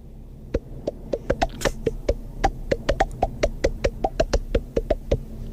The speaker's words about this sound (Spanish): mi superpoder es eh, puedo, tocar canciones aplaudiendo la, eh, con mi mano la boca. Parece un poco raro, pero mira.